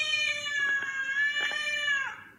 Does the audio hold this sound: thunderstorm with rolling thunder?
no